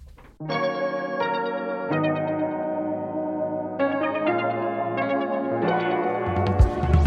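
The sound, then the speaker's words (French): A bright pop song intro plays loudly and steadily on the radio, sustained synth chords shifting every second or so over a bass line, with a swelling, busier texture at the end and no voices. “place à un peu de son sur ce goût de radio”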